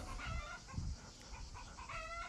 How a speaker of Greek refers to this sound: πίσω ακούς κάτι κοτούλες γιατί βρίσκομαι στο σπίτι και τυχαίνει εδώ πιο δίπλα να έχουμε και κοτούλες